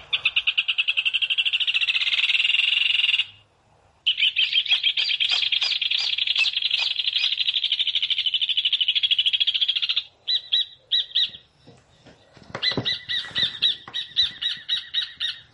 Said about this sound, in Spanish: Estamos escuchando al hornerito, el hornero.